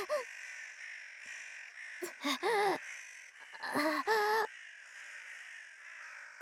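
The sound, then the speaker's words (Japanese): Crows caw harshly and loudly in two short bursts of a few calls each, over a steady background hiss. “こんなカラスどもなぞ本来のわらわの足元にも及ばぬというになんたる屈辱”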